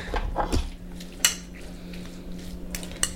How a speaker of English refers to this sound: All right, um, so now we have to mix up the mayo, sriracha, salmon, rice.